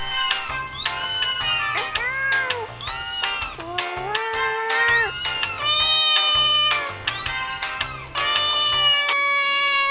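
A cat meows loudly and insistently, a rapid string of drawn-out, wailing cries with hardly a pause between them, over a low background hum.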